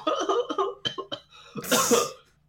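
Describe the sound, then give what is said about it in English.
Breathy, rhythmic bursts of laughter break into a harsh, loud cough, the laugh and cough blending together before trailing off into quiet. “I was laughing through a cough.”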